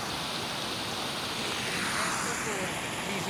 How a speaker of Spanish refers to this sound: Acá tenemos la última y la más espectacular, que es el Salto del Tigre. Salto del Tigre, una cascada muy bonita, es un lugar mágico,